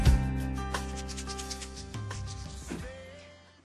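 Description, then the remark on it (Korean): A box of ginseng tea bags is shaken in place of a shaker, a steady dry rustling rasp layered over sustained musical notes that gradually fade out near the end. “쉐이커 소리가 있었으면 좋겠다는 생각했는데 안 갖고 와가지고 지금 그 인삼차예요 그게?”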